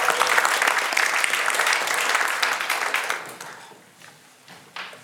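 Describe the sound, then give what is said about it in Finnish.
An audience applauds a worship band after a new song, a dense wash of many hands clapping at full strength for about three seconds, then thinning out and fading to a few scattered claps. “Annetaan ylist- bändille aplodit.”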